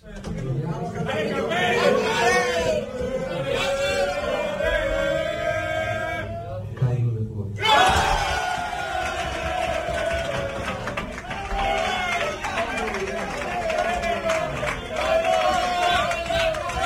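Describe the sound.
Players of the Arandina football team shouting and cheering excitedly together in their dressing room on hearing that their next opponent is Cádiz, loud, with overlapping raised voices that briefly cut out before erupting again.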